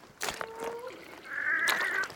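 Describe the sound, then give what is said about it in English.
Wood ducks calling in a swamp in Western Australia: a few rising, squealing whistles and thin, drawn-out cries, like a moaning frog, over a soft wet background with no talking. “Hey, there are those wood ducks. They do kind of sound like a moaning frog a little bit, don't they?”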